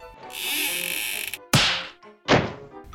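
A steady hiss runs for about a second, then a cupboard door is slammed shut hard twice to make a sound for children, two loud wooden bangs, each ringing out briefly.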